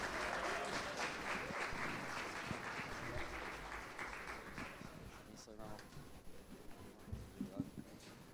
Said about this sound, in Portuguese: aplaudindo ao Senhor pelo pregador dessa noite